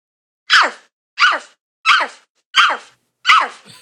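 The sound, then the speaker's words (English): A person imitates a big dog barking: five loud, evenly spaced woofs about a second apart, each a short gruff burst, with silence between and no other talk. “a big dog. woof, woof, woof.”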